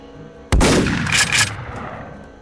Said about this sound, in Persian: تیر دوم از روبرو و از سمت تپه شلیک میشه و گلوی کندی رو سوراخ میکنه